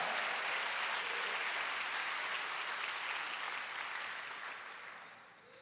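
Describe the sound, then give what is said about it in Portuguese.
A church audience applauds in a dense, steady wash of clapping that holds strong for several seconds, then gradually fades toward the end. No one speaks over it. “Se você recebe, dá mais um aplauso aí mais forte no seu lugar.”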